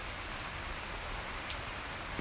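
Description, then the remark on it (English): Heavy rain pours down steadily on a back porch, a dense continuous hiss with no one talking, broken by an occasional sharper tap as a drop strikes a surface. “So if you hear that noise, it's rain, because we're literally on the back porch.”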